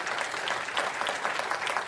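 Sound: audience clapping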